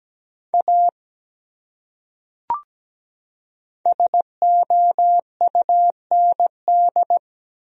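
A steady, clean electronic tone keys out Morse code at 17 words per minute, spelling a common word in short and long beeps: a brief group, a pause broken by a faint click, then a longer run of dots and dashes.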